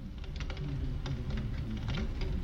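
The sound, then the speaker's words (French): In the opening of a film, a dense, steady murmur like rain, with a low rumbling wash underneath and scattered crackling patters on top, holding at an even level for the whole stretch, with no voices. “C'est une sorte de brouhaha, de pluie dont elle sort, et on se rend compte que c'était pas du tout une scène d'horreur.”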